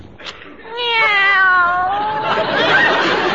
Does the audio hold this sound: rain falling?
no